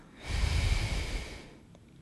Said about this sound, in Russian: И еще один вдох. И выдох. Почувствуйте, как дыхание очищает вас на выдохе и возвращает вас в момент здесь и сейчас на вдохе.